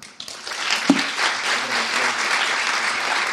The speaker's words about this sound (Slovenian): Ploskite, pa bo veste, da to mogoče za njega ploskati.